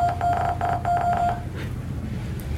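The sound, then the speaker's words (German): A series of short, clipped electronic Morse code beeps, part of a jingle, in an uneven rhythm, repeated for about a second and a half over a steady low hum, then fading into a quiet tail. “unser also Jingle aber enthält tatsächlich ein, Mo ein Death Radio Morse”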